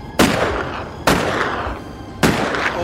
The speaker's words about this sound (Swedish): Du hinner precis få upp din stora revolver när björnen är alldeles i närheten. Hur många skott tänker du krama av? Kan skjuta upp till tre. Jag gör nog faktiskt det.